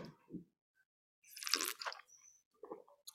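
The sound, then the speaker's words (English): Someone takes a single sip of coffee from a cup: a brief, airy slurp in the middle, surrounded by faint mouth clicks and a soft clink, with no talking. “excuse me while i have a sip”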